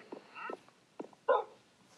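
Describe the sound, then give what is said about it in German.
A dog gives a few short, high yips mixed with thin whimpering whines, ending in one louder bark, with no talking. “Mein Hundi soll vom Bunker weggehen.”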